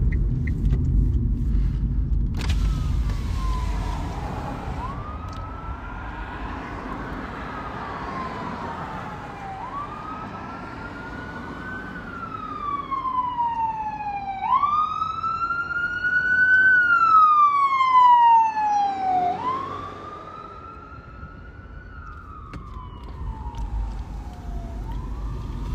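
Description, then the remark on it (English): An emergency vehicle siren wails close by, rising and falling in long sweeping tones over a low traffic rumble, growing louder mid-clip and then dropping in pitch as it passes. “That siren's coming right over here.”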